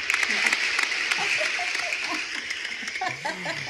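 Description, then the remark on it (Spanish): A steady round of applause, many hands clapping in a dense, hissy patter for several seconds, with voices and light laughter rising over it toward the end. “Y te vamos a dar una ronda de aplausos.”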